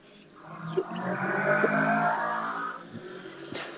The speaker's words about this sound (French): Ouais, donc il y a une super moto qui vient d'accélérer. Hein.